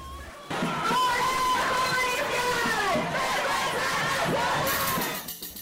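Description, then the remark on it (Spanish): A dense crowd of women shouting protest cries together at a street protest in Lima, Peru, near the Superior Court of Justice, on 25 November 2020, loud and sustained, with overlapping high voices rising and falling in a continuous roar before it tapers off at the end. “Luego de una larga jornada de gritos de protesta y caminatas, quedaba cerrar el día con un acto cultural.”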